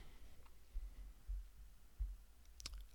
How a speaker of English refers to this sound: Oh, I have just knocked over my microphone. I'm very sorry if that was a loud noise.